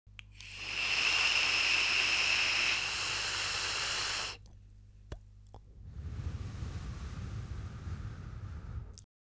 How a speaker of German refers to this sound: Also ich glaube, man hat es ganz gut gehört, wie lange ich gefeuert habe. Und wann ich dann aufgehört habe, dann ist das Geräusch leise geworden und man hat nur noch gehört, wie ich den restlichen Dampf aus meiner Dampfe rausziehe.